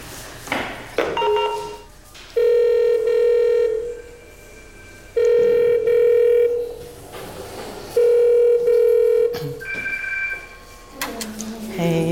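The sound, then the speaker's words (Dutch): A door intercom bell for dwelling 1 in Kortrijk rings three times, each a steady, mid-pitched electronic buzz lasting over a second with short pauses between, plus brief rustling and voices at the start and end. “Dan bel ik.”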